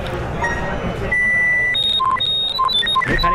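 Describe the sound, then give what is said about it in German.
A handheld colour detector, when pressed long, gives a steady high-pitched tone lasting about half a second, then a quick series of short chirping beeps at varying pitches, with faint background murmur. “Ähm, und wenn man es lang gedrückt hat, habe ich schon gehört, kommt so einem Piepton.”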